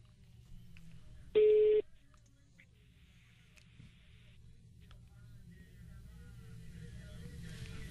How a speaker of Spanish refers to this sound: Muy bien, vamos a marcarle en ese momento y la frase la tiene que decir sin decir bueno o algo porque pierde.